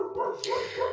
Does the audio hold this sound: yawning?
no